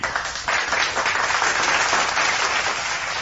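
A steady burst of applause from a crowd, dense and continuous crackling claps holding a fairly loud, even level throughout with no voices over it.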